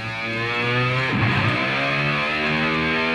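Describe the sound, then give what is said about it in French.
A loud, sustained distorted electric guitar tone mimics a revving motorcycle, its pitch dipping and swooping back up partway through before holding steady again. No one speaks. “Pas mal, hein Eh c'est ma moto-guitare.”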